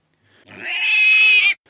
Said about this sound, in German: und dort sollte dann eine Schweinemutter mit ihren Ferkeln wohnen. Und äh, ja, sollte zuerst das ältere Schwein einen Laut von sich geben, ist der zukünftige auch alt. Quieken aber die Ferkelchen, ist der Bräutigam jung